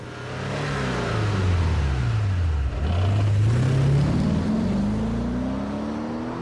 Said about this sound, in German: Ja, so in etwa klang das wahrscheinlich, als der tschechische Milliardär Radim Passa mit 470 10 Stundenkilometer über die Autobahn A2 donnerte, deutlich schneller als die Rennwagen bei der Formel 1 tatsächlich.